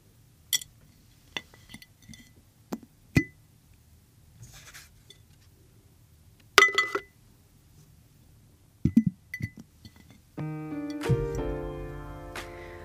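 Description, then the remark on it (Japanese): A coaster with a cat drawing on it is dropped into a glass jar to be kept: scattered small taps and handling knocks, then a few brighter glassy clinks, followed by a sustained tonal ringing at the end. No one speaks. “ではこのコースターを今日もガラス瓶に入れて保存したいと思います”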